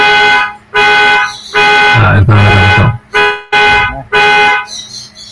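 A car alarm blares in loud, repeated honking bursts separated by short gaps, with a harsh, buzzy tone that keeps sounding throughout.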